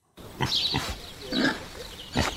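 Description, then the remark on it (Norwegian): A pig grunts and snorts as a farmer carries it around in a Gilde advertisement film, four or so rough, irregular bursts over a couple of seconds, with short pauses between them and no talking. “Det er av en bonde som bærer rundt på en av sine edleste griser”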